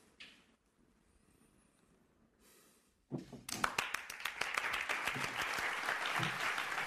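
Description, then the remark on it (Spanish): Students give a standing ovation after a professor's last class: applause bursts in after a few seconds of near silence, a dense, loud wash of many hands clapping that continues steadily to the end. “Los estudiantes lo aplauden de pie.”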